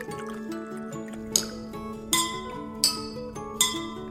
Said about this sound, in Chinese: 这是因为啊，水越少，声波会震动得越快，声音就比较高；水越多呢，声波震动越慢，声音就变低喽。现在你可以把其他的水杯装装看，高低不同的水，再悄悄看。